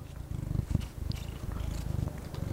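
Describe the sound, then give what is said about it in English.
A young female kitten, not yet a year old, purrs steadily, a low rumbling pulse repeating in a continuous rhythm with a few soft clicks and rustles, no talking. “It's my cat Raven. She's still a kitten yet, not even a year old.”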